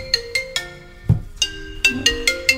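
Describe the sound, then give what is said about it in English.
A phone ringtone plays a bright, electronic melody of quick repeating notes in a steady rhythm, fairly loud, with no one talking over it. “bet you get lots of phone calls throughout the day.”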